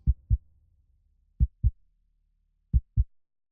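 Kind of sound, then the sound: sound effect, heartbeat sound effect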